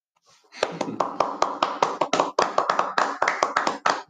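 A standing ovation: a brief hush, then several people clapping hard, with sharp, rapid, overlapping claps that keep up a steady, loud rhythm until the end.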